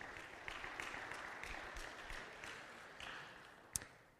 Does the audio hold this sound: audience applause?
yes